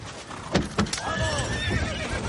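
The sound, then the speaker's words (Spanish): A few sharp hoof clops ring out, followed by a horse's long, wavering whinny that carries on to the end over a low ambient rumble, as riders mount their horses. “Montan en sus caballos.”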